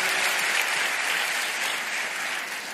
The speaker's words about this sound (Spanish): Otra vez, ¿será que podemos dar un aplauso al Señor?